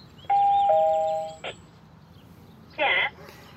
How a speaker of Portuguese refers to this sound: Eu peguei o trem de alta velocidade e desembarquei em Milão, atrás do endereço que eu tinha visto em uma das páginas do processo. Enquanto os passarinhos cantavam nos jardins de um bairro na periferia, eu toquei a campainha de um dos prédios da rua.